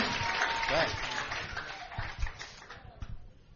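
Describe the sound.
An audience applauds, a dense wash of many hands clapping that carries through the whole stretch and thins out toward the end, with a voice or two calling out over it.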